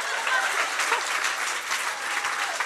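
Steady audience applause, a dense wash of many hands clapping at an even level throughout, with no pause or swell and no voices standing out.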